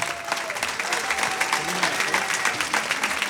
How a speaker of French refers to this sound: Donc un tonnerre d'applaudissements, messieurs, dames.